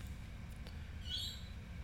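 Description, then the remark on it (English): A single short, high-pitched chirp from a pet bird rises faintly over a steady low hum, with no one speaking. “My bird's going off. Can you hear it?”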